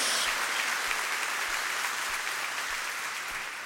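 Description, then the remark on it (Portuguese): An audience applauds the Lord steadily, a dense wash of many hands clapping at an even loudness throughout, with faint low thumps recurring at a regular pace underneath. No one speaks. “Pode dar uma salva de palmas ao Senhor, querido.”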